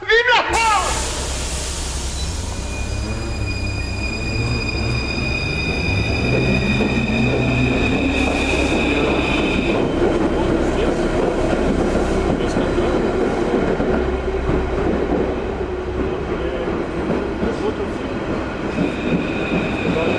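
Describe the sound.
A Paris metro train rumbles through a tunnel, its steady roar joined by sustained high metallic whines and squeals, with muffled voices faintly under the noise.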